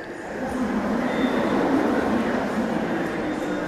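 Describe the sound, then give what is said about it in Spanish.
A commuter train of the suburban railway rumbles steadily through Buenavista station, a loud, continuous roar of wheels and motors with a faint high whine, and indistinct voices murmur underneath. “Estoy frente a la estación de Buenavista Aquí ya no hay ferrocarril ni estación, pero me acurruco en un rincón del suburbano”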